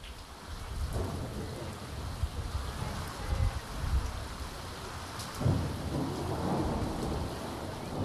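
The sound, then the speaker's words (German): Heavy rain, falling for the fourth day in a row, pours down steadily on a meadow near the Garzweiler open-pit mine south of Mönchengladbach, Germany, on a January evening, in a dense, hissing wash, while low rumbles of thunder roll in and swell several times beneath it, with no voices present. “Vier Tage regnet es jetzt schon in Folge.”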